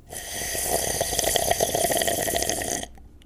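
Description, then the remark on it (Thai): A continuous slurping through a drinking straw, a gurgly, airy rasp lasting a few seconds before cutting off abruptly, with no voices. “What is this noise What is this sound What is this person doing He or she is sucking on a straw and he or she might be slurping”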